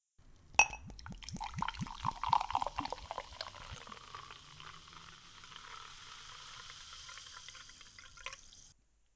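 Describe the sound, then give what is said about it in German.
A glass clinks, followed by a quick run of gulping, glugging liquid sounds, then a steady fizzing hiss of carbonated San Pellegrino orange fruit juice drink that lasts several seconds before cutting off. No one speaks. “Also, lass uns erstmal einen Schluck nehmen.”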